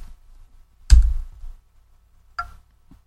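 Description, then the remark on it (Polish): Sparse clicking from the JOS software installer signalling installation progress after Enter is pressed: a louder click with a short low thump, then a lighter click, then a faint one, spaced irregularly over quiet. “poinformował nas o tym, że klikanie, które się pojawi, będzie nas informowało o przebiegu instalacji.”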